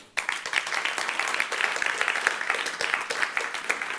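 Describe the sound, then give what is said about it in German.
An audience at a church service applauds two young men steadily, many hands clapping in a dense, continuous patter that starts abruptly and stays fairly loud throughout, with no voices standing out. “Jungs, das ist euer Applaus.”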